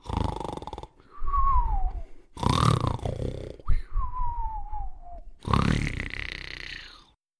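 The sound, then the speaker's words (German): Loud, exaggerated snoring of a wolf sleeping under a tree, likely voiced by a person: three rasping snorts, each followed by a long whistling exhale that slides downward, in a slow steady rhythm. “Der lag gemütlich schlafend unter einem Baum und schnarchte, dass die Äste zitterten.”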